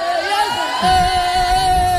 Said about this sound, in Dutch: Ja, we, we, hebben gewoon een hele, hele studio vol. Ik wil eigenlijk gewoon even heel hard gejuich horen van iedereen. Eh, kan dat?